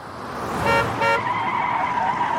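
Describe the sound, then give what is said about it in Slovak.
A car horn blares twice in quick succession, layered over a loud, sustained screech of skidding tires as a car brakes hard on a road. “Odrazu ticho pretne trúbenie a zaškrípu brzdy.”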